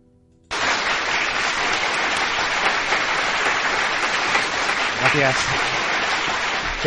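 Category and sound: crowd, people applauding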